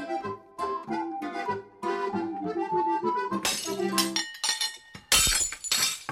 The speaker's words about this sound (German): Au weh, das schöne Geschirr. Aber Scherben bringen Glück, denn was hier zu Bruch geht, bietet die Chance auf einen Neuanfang.